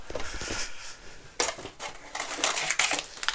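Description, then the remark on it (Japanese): Someone at home bites and chews Happy Turn rice crackers, producing a series of irregular, crisp crackling crunches of moderate loudness with no talking. “あのこの間ねお友達がハッピーターンを箱でくれたんですよあんな箱で売ってんだって初めて知りましたけどそうね箱でもらったんでそのもらったハッピーターン食べようかな”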